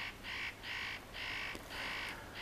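A spotted nutcracker gives a series of four harsh, rasping calls in steady rhythm, each a scratchy, noisy burst of about a third of a second, with no voices.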